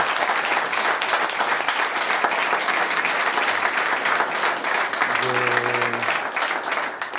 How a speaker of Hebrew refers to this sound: ונראה לי שמגיע לו הרבה הרבה מחיאות כפיים כי בלעדיו אנחנו לא פה היום.